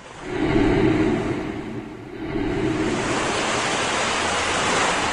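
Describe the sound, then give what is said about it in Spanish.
Heavy, very high ocean waves crash continuously under a strong, gusting wind, a dense roar that swells around the first second, dips briefly, then surges back and holds steady and loud. “Y las olas muy altas el barco se estaba llenando de agua.”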